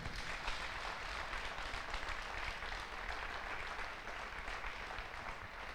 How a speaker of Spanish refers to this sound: Y un fuerte aplauso al Señor.